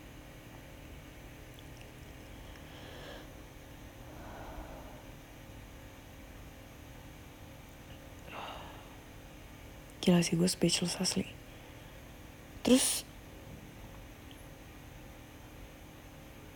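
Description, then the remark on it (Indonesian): A steady air conditioner hum runs through the whole recording as a constant low background noise, with a person talking in short bursts over it. “by the way kalau misalnya kalian dengar noise itu suara AC I have no choice”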